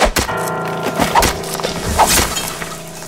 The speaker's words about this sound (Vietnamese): sẵn thanh gươm trên tay vì tổng nhung chém lìa mấy cây chuối bên cạnh